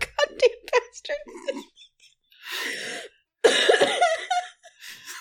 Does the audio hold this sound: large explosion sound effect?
no